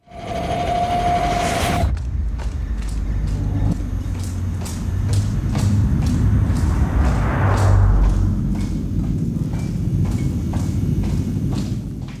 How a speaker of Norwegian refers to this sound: Klikkende hæler.